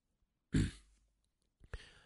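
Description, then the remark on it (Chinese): A man clears his throat with a loud, rough rasp, then after a short pause gives a second, quicker clearing followed by a breathy exhale. No speech. “一个团伙骨干清了清嗓子。”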